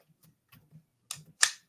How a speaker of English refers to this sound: No, no, I have it down. I don't know where it is. I'm getting all my coins out.